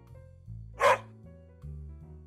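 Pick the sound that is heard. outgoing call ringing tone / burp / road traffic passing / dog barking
dog barking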